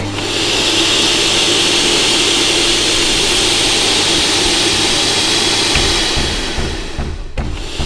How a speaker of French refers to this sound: Moi je passe l'aspi et tu serpilles derrière.